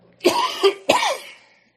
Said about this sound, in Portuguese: Eu ri tanto que eu tive um ataque de tosse.